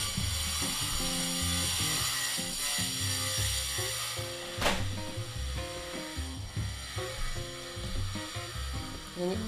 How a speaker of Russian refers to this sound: О, это московская стройка включилась в наш с вами эфир, поэтому сейчас я закрою окно, подождите.